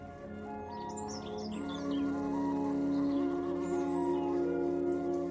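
A steady, low buzzing drone of bees that swells slightly partway through, with a few quick bird chirps flickering above it early on. No one speaks.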